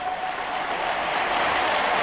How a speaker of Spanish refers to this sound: Ovación de la grada para Diego Costa, muy participativo en el partido de hoy y que agrada mucho este jugador porque se desgasta